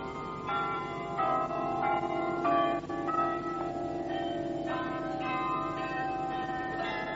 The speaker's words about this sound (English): Set on Aspen Island in the lake is a 53 bell carillon presented to Canberra by the British government to commemorate the city's half century.